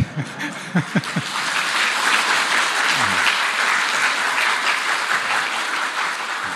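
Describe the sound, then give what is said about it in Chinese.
Sustained audience applause at a talk in Hong Kong, a dense, steady wash of many hands clapping that swells quickly and holds loud for several seconds, with a few brief voices audible at the start. “你们这样掌声呢，”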